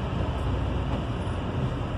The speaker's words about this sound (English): I think this episode is basically me in a car because six days a week driving to work, spending about 12 hours plus, I would say probably 13 hours when all is said and done in the car per week during this rehearsal process